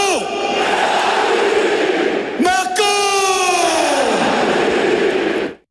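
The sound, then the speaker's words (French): A huge stadium crowd at the Parc des Princes roars and chants in unison in tribute to a departing PSG player, a loud sustained wall of voices with rising and falling chant tones, swelling again after a brief dip before cutting off abruptly. “Des larmes, des feux d'artifice et surtout un hommage royal de la part du Parc des Princes.”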